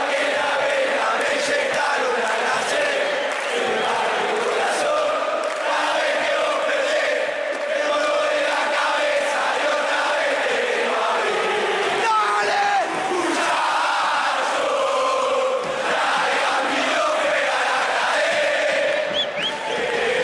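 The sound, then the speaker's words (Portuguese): A huge crowd of football fans sings the stadium chant "Muchachos, traigan vino, juega la KD" together, loud and sustained for the whole stretch, with the massed voices rising and falling in a steady rhythmic melody. “Então vamos escutar o Muchachos Traigan Vino Juega la Cadê.”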